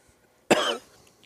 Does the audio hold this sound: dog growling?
no